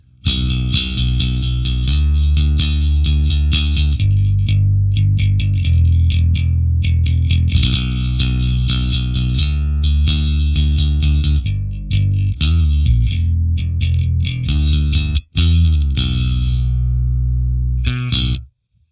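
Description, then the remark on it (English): A bass guitar played through a Line 6 HX Stomp with an Ampeg SVT amp simulator plays a solo riff with a thick, gritty amp-driven tone, sustained notes and quick runs with a slight effects sheen, no talking. “Then straight into the Line 6 HX Stomp with a Ampeg SVT amp sim on there.”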